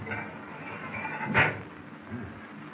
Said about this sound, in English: I'll try this steel door, see what it leads